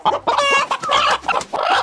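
Two quarreling roosters clucking loudly in a rapid, overlapping burst of harsh, nasal squawks and clucks that fills the short clip without pause. No one speaks.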